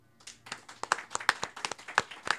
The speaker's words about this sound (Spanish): Yo te doy un aplauso y también un aplauso a todos los asistentes.